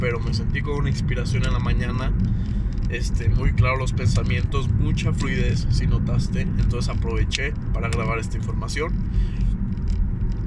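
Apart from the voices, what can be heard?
car driving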